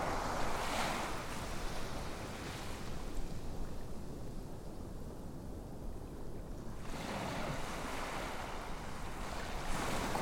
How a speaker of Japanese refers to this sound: 優しく寄せては引いていく波静かで心地よい海辺をイメージしてください聞こえてくる波の音に意識を向けましょう